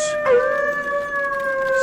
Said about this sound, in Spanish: Unos momentos más tarde, sin embargo, mis oídos se habían acostumbrado a los aullidos y los caballos